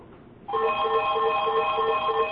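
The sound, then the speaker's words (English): A telephone starts ringing after a brief quiet moment, an electronic trilling tone that pulses rapidly and steadily at a fairly loud level, with no one talking. “And then their phone rings.”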